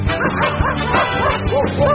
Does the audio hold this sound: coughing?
no